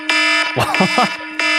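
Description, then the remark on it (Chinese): A harsh, buzzing phone alarm ringtone, a morning wake-up alarm played from a phone, sounds loudly in two bursts, a steady electronic wail, with a person speaking briefly in the gap between them. “我是这个， 直接警报。”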